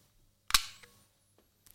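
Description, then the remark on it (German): A sharp mechanical click of an Ilford HP5 Plus 400 disposable camera shutter with a bright flash burst, followed by a faint rising high-pitched whine of the flash recharging and a softer second click near the end. “Eine Einwegkamera. Und zwar keine gewöhnliche Einwegkamera, sondern von der Firma Ilford.”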